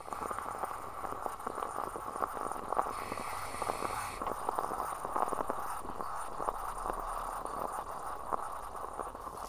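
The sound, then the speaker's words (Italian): A moka pot on a stove, just after the flame is turned off, gurgles and sputters steadily as coffee pushes up, a continuous bubbling hiss broken by many small irregular pops, heard alone without any voices. “Spengo il fuoco e ascolto il suono della caffettiera.”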